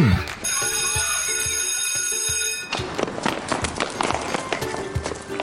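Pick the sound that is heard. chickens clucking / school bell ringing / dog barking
school bell ringing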